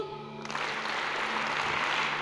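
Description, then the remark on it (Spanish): An audience bursts into applause, a dense, steady wash of many hands clapping that starts abruptly and holds at an even, loud level throughout. “Da un aplauso.”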